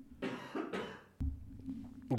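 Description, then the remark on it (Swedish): Two quick, breathy coughs from a person with a tickle in the throat, followed by a lower throat-clearing rumble and a brief vocal sound at the end. “Nej, jag har eh, kittel i halsen.”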